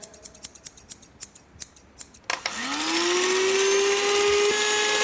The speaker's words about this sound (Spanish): Ahora vamos a cortar, cortar cabezas o cortar algo, o a ver qué cortamos. Alcánzame las tijeras.